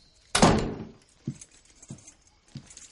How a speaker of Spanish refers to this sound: Más tarde, Skyler entra en su casa. El comedor está a oscuras. Cierra la puerta.